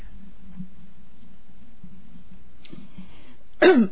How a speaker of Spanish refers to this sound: disculpas por mi tos